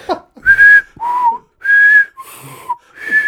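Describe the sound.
A person whistles an imitation of a street flute player's two-note playing from the passage between Gothenburg's central station and Nordstan. It alternates between a higher and a lower note in a steady back-and-forth of about five short tones, each clear and fairly loud.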